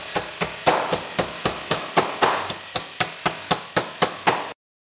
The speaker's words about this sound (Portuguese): Vocês sabem que quando tem martelada aqui na, na live, ó, durante a, na, na primeira janela, era, meu irmão, tinha martelada, alguma notícia boa acontecia.